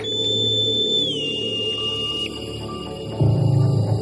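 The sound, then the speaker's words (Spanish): A boatswain's pipe aboard a ship sounds a shrill, steady high note that dips slightly in pitch partway through, then cuts off, leaving a low background rumble that grows louder near the end. “lo que yo estaba oyendo era el silbato del contramaestre”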